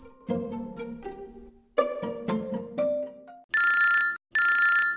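A phone rings loudly: a short electronic melody of tonal notes, then two sustained, buzzy ring bursts separated by a brief gap, with no one speaking.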